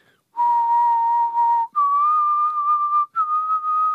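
A person whistles a short tune: three sustained, clear notes, each stepping up slightly in pitch with brief breaks between them. No one speaks.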